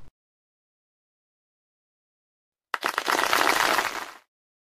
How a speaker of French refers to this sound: La compagnie avant de clôturer ce spectacle, j'aimerais que l'on applaudisse une dernière fois les artistes.